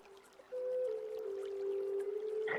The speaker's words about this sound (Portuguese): Então vocês estão entrando no templo, vocês percebem que cada, fica cada vez mais úmido. Vocês começam a escutar sons de gota de água, inclusive.